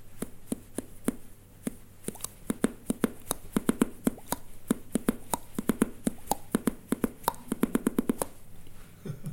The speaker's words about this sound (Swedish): Eh, och då började jag trumma liksom med mina tänder genom att slå med, med tummarna under hacken. Så jag gör det här ljudet som rytmen till exempel. olika rytmer.